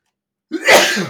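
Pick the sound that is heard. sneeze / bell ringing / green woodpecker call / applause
sneeze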